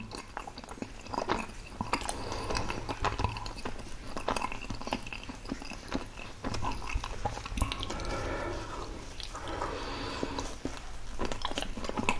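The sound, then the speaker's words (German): Steady chewing of pizza with wet, smacking bites and occasional soft crunches, continuing for several seconds with no talking. “lecker ist eine Pizza.”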